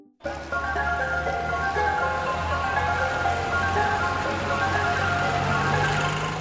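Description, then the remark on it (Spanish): Film score music with an Asian flavor, sustained bright melodic tones over a low steady drone, entering suddenly after a brief silence and holding at an even, full level throughout. “Una ambientación general que nos indica que estamos en Asia, Nada fuera del ordinario.”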